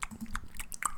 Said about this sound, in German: Man, man hört mich im Hintergrund so ab und an mal schmatzen, so.